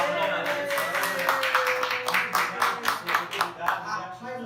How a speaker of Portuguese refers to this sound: palmas, por favor. É obrigado.